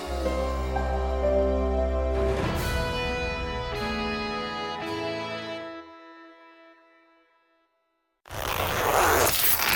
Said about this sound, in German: So klingt es, wenn Sie Ihr Diamantkollier im Reißverschluss Ihres Haute Couture-Kleids einklemmen.